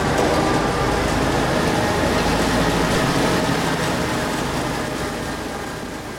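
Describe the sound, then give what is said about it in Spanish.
A heavy Zamboni ice resurfacing machine drones with a steady, dense mechanical rumble, then gradually fades slightly as it moves away into its garage, and the garage door closes. No one speaks. “Bueno, como habéis podido escuchar, en ese alejar del sonido ya se ha podido eh, encerrar la Zamboni en el garaje, se ha cerrado la puerta”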